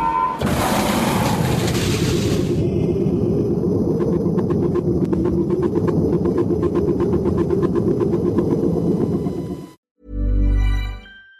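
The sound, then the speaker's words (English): A sci-fi spaceship airlock opening after an evacuation procedure is initiated: a loud rush of hissing air over a deep, steady rumble with rapid mechanical clicking, then a brief pause and a short low booming thud. “Airlock will be opened in three, two, one.”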